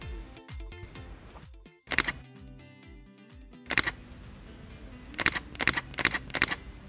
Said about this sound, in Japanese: 今回 XE4 のシャッター音を収録します。